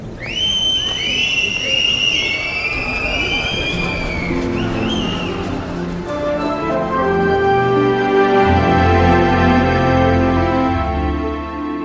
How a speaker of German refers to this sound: Dann steckt sie beide Finger in den Mund und pfeift gellend. Und die anderen stimmen mit ein.